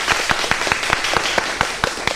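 An audience applauds steadily, a dense wash of many hands with a few sharper, closer claps landing in a quick even rhythm throughout, fairly loud and with no talking.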